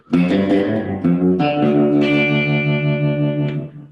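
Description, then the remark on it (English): A guitar strung with twelve-gauge strings and tuned down a whole step strums several full, ringing chords in succession, each one sustained and resonant with a slightly overdriven edge. It is loud, with no voices. “this guitar I leave with twelves um, tuned down a whole step because uh, it's really good for you know the pops thing”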